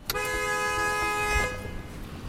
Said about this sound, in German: Stau in beiden Richtungen auf der Cherokee Orchard Road bei Gatlinburg am nördlichen Rand der Great Smoky Mountains. Ein Dutzend Autos steht mit laufenden Motoren am Straßenrand.